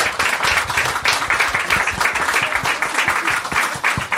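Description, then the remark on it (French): A crowd applauds itself steadily, many hands clapping in a dense, continuous patter that stays loud and even throughout, with no voices standing out. “Donc, félicitez-vous, applaudissez-vous parce qu'on est super fiers de vous.”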